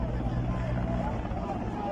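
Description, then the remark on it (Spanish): A steady, heavy low rumble of a helicopter hovering overhead as tear gas canisters are fired from it, droning continuously with no breaks, while voices murmur faintly underneath. “Así es como están tirando bombas lacrimógenas desde el helicóptero.”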